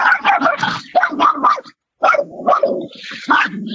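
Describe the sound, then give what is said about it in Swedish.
A dog named Ivar barks at a bird outside in rapid, agitated bursts with some low growling, pausing briefly partway through before starting up again just as loudly. “Nu blev Ivar arg på en fågel här ute.”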